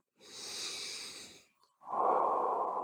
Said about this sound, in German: Du beginnst laut zu atmen, so dass du dich selbst atmen hörst und kommst mit jedem dieser Atemzüge wieder mehr und mehr im Hier und Jetzt an.